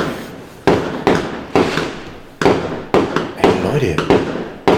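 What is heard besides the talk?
fireworks exploding outside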